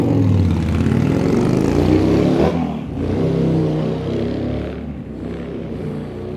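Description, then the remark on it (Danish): A three-cylinder motorcycle engine runs loudly and steadily, its low humming drone shifting pitch slightly as the revs dip and rise twice, with no voices. “Men jeg er glad for min trecylindrede symaskine.”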